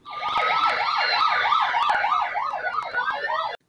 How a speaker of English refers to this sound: Hearing them sirens, you know what I'm saying?